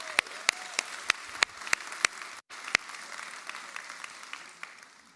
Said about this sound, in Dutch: Zullen we ze een applaus geven, de engel en God?